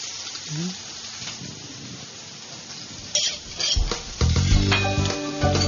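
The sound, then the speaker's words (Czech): Shrimp and seafood sizzle in oil in a heated pan, fried only briefly as part of making an Italian risotto, with a steady crackling hiss. Partway through, louder clattering and scraping from stirring join in and continue to the end. “Mořských plodů a kreve, tak si rozpálíte pánvičku, potom přidáte olej a do něj dáváte ty krevety.”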